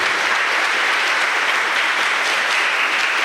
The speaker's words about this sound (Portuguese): Então, a todos eles, vamos dar uma salva de palmas, filhos.